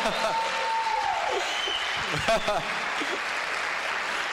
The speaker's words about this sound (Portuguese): Pode bater palmas se quiser, não tem problema não.